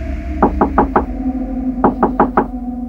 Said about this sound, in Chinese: 过了一会儿，怪事发生了，他又听见昨晚的敲门声。